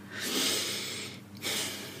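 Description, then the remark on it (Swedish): A deep breath drawn in with a loud, airy rush lasting about a second, then a brief pause before more breathing resumes. No one speaks. “Vi kanske tänker på hur vi andas eller när man säger så här, ja men jag ska ta ett djupt andetag.”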